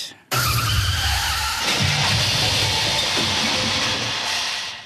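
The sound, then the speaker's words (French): A car skids hard with loud, sustained tire squealing that starts abruptly and screeches continuously for several seconds, intense, with a low engine rumble underneath. “Qu'est-ce qu'il représente ce son J'imagine un accident de voiture.”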